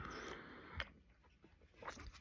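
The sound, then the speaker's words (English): A quiet sip of afternoon coffee from a cup: a soft slurp followed by a couple of faint swallowing and mouth clicks, with no talking. “I'm taking a sip of my coffee.”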